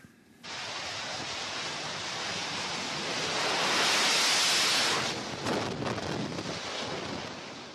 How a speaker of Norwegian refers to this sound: Et jetfly tar av fra hangarskipet USS Wasp et sted i Middelhavet. En mann i gul kjeledress og hjelm sender flyet av gårde på tokt til Libya der amerikanerne igjen har startet sin bombing.